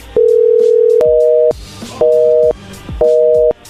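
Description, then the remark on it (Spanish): A telephone line tone sounds as a call is cut off: one long steady beep, then three short repeating electronic tones in an even on-off pattern, loud and clear with no voices. “No, está cortando la llamada.”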